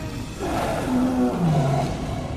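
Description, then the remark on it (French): A lioness lets out one deep, drawn-out roar, loud, its pitch sliding downward over about a second and a half against a steady rushing background noise. “La lionne gonfla le poitrail et ouvrit la gueule,”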